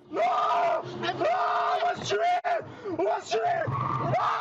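A ride-hailing (VTC) driver, attacked by passengers refusing to pay for their ride, yells in panic, loud, his strained shouts coming in several long, rising bursts with only brief breaks for breath, calling out to alert those around him.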